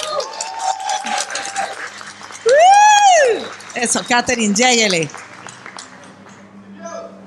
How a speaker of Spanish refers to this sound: Un aplauso para Katherine Rojas.